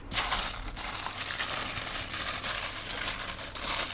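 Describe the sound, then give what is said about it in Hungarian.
Steady rustling and crinkling of a bag as a black paper box holding a tiny lathe is pulled out, a continuous papery scratching that lasts a few seconds with no one speaking. “Előkerül az acskóból fekete papírdobozban.”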